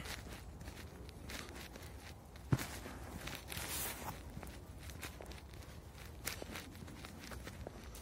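Footsteps walk at a steady, even pace, each step a soft crunching scuff over low background rumble, with one sharper thud partway through. No one speaks.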